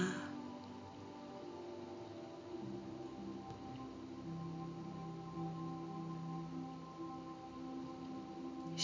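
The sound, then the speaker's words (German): A steady, continuous rush of sea waves, a soft broad wash of surf that holds at an even, moderate level with a faint sustained hum beneath it and no voices. “Nehme das Rauschen des Meeres wahr.”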